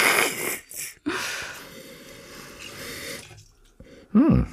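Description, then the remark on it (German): Wine is poured into a glass, then sloshed and swirled around for a few seconds to rinse the glass with the wine, with a wet, splashing texture. A brief voice sound comes at the end. “ich muss gerade erstmal avinieren”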